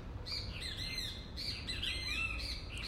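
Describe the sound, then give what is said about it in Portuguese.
Many small birds chirp and tweet continuously overhead in a tree, a busy overlapping chorus of quick, high calls with a low steady outdoor rumble underneath and no voices. “Olha só os passarinhos lá em cima da árvore com você, olhando para baixo, te lembrando que tá tudo bem que a natureza ela cuida de si mesma, ela traz tudo para gente com abundância.”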